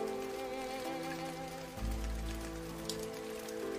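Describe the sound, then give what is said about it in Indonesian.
Steady rain falls and patters on a surface, a continuous dense hiss with a low rumble swelling partway through, no voices present. “Salah satu temannya berinisiatif mengecek jendela untuk melihat apakah hujan sudah reda.”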